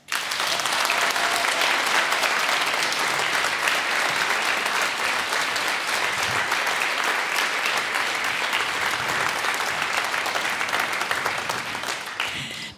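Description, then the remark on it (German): A large audience applauds the show's technicians steadily for about twelve seconds, a dense, continuous wash of clapping that holds its loudness throughout before easing off at the very end. No voices stand out. “Und groß Applaus für die, die dafür sorgen, dass ihr das überhaupt hören könnt.”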